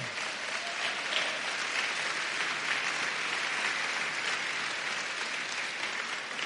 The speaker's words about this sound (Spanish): Estamos en la casa de Dios. Hemos estado alabando, adorando, exaltando su nombre. Pa Él sea la gloria. Dele palmas al Señor.